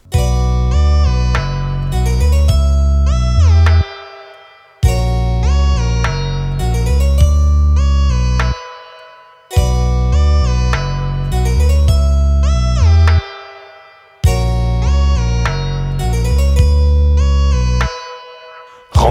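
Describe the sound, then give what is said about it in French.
A French rap song's instrumental intro plays loud: a heavy bass-driven beat with melodic synth lines and sliding notes, repeating as a short loop four times with brief drops, and no vocals yet. “on va écouter ça alors, ça s'appelle …”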